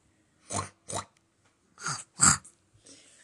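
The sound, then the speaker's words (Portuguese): A voice imitates a pig grunting: four short, rough, snorting bursts in two pairs, the last one loudest, then a faint breathy trail at the end. “Como que o porco grune?”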